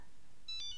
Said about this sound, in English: Oh no, that's my phone. I need to pick it up. Where's my phone? Oh, it's in my hand.